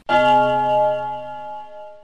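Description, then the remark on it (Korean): A telephone ring sounds once: a sharp, bright electronic tone with rich bell-like overtones that holds steadily and fades over about two seconds, with no talking. “전화가 예. 왔어요. 뚜루룽 뚜루룽”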